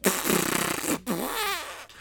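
A loud fart: a rough, buzzy rumble for about a second, a brief pause, then a squeakier, wavering tone whose pitch rises before it trails off.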